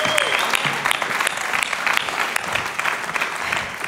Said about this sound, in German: Applaus